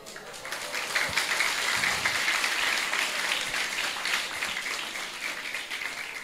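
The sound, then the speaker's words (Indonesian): Sustained applause from a crowd, a dense wash of many hands clapping steadily at fairly even loudness for several seconds, with no voices standing out. “sing tepuk tangan nih”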